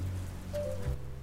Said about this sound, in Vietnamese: có nhiều người sẽ thích uh, tiếng mưa nó là âm thanh trắng à, nó có thể sẽ giúp cho mình à, bình tâm cũng có thể chữa lành được à